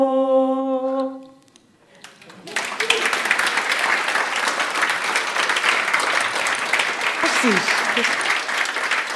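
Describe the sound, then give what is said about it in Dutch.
A sustained music chord cuts off, then after a brief pause a large crowd breaks into loud, steady applause for the performers at an evening event with writers, continuing to the end, dense clapping filling the space. “Geef ze nog even een applaus.”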